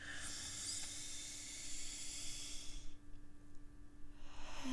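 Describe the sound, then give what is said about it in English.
A long, airy inhale through the nose during a guided breathing meditation, fairly quiet, a steady hiss for about three seconds before fading, with no talking. “Yeah, loosen the jaw, loosen the inner ear, breathe in through the nose”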